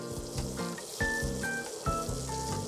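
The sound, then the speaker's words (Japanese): Water boils steadily in a pot, ready for boiling okra, a continuous bubbling hiss with soft low rumbles and occasional louder surges. No one speaks. “さあ、えー、こういうふうにして、えー、鍋のお湯が沸いてきましたでしょうか”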